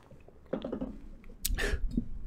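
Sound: gulping down water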